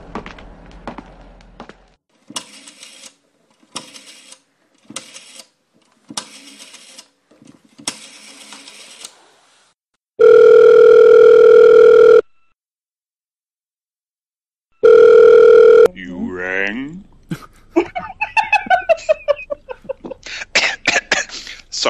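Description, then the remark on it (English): A telephone being dialed to call Dr. Frankenstein, with short rhythmic bursts of clicking, followed by two loud, steady buzzing rings separated by a pause, then a stretch of warbling, chirpy sounds. “I think I should give Dr. Frankenstein a call.”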